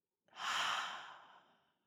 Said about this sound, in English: And we're going to take a deep breath in and out, and I want you to hold that thing at the very top, that insight, that wisdom. So, breathing in, holding, holding, holding, and breathing out.